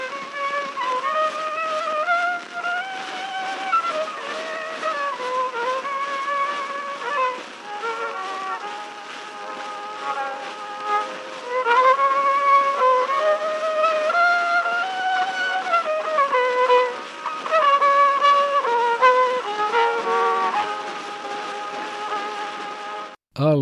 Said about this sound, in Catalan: Aquesta és una de les tonades que Bartók recollí, un enregistrament original de fa més d'un segle i que ara us arribarà a les orelles amb el so embrutit per la pols del pas del temps.